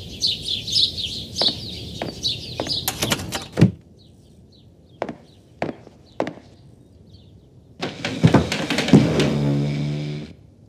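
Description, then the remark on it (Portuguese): Birds chirp outside while a few sharp knocks sound, then a door is pushed shut with a loud scraping, creaking rush near the end. “Ops, deixa só eu fechar a porta para não aparecer esse barulho lá de fora.”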